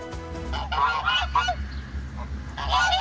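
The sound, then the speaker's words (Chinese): A flock of geese guarding a prison in Brazil, walking along the prison wall, honks loudly in overlapping bursts, harsh nasal calls rising and falling in clusters with a brief lull in the middle before another round of honking. “一群鹅沿着监狱围墙来回走动，有任何风吹草动，他们就扯开嗓门，集体放声大叫。”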